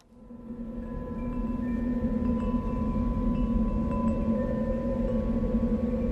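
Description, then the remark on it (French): A cassette is put into a cassette player, which starts up, its playback swelling in over the first second into a steady, dense low drone with faint tonal hum and hiss underneath. No one speaks. “Ce qui, est encore mieux, c'est qu'on a un lecteur à cassette juste derrière, qu'on avait Waouh cassé Waouh, ça, tombe bien, dis donc.”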